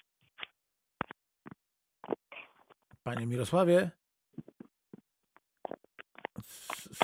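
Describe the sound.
Scattered soft clicks, taps and brief rustles of a phone being handled on a quiet line, with a short spoken call midway and a hissy scrape near the end.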